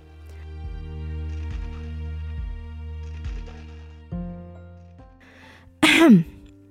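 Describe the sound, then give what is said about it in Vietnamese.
A woman clears her throat once at a market food stall on a rainy day, a short, loud, raspy burst near the end, following several seconds of soft, steady instrumental music with a repeating low pulse. “mụ hắng giọng cụp ô róc nước để con dao lên mép bàn ngay sát bát phở của gã mông đang ăn dở.”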